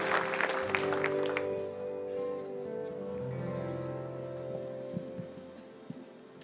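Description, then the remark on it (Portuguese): An audience at a church service applauds the Lord, loudest at first and then thinning out, while sustained keyboard or organ chords hold steadily underneath throughout. “Aplaude ao Senhor, toda a sua força.”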